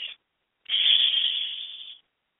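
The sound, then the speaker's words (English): A person exhales a steady, drawn-out "shh" hiss lasting over a second, preceded by a very short breathy burst, as part of a breathing exercise. It is even, with no other sounds around it. “We release those emotions with the sound shh, S H H H.”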